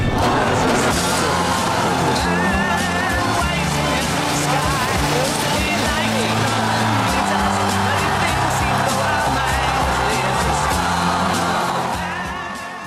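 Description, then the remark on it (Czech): A rocket launch carrying the Starman mannequin in a Tesla Roadster: a loud, continuous rumbling roar that holds steady for several seconds, with an excited crowd cheering and shouting over it before it eases off slightly at the end. “tak to bylo vypuštění panáka Starmana v autě Tesla Roadster.”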